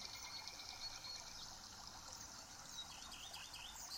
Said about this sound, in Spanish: Acompaño nuestra lectura con el canto de pájaros del canal Mi Paraíso Visión.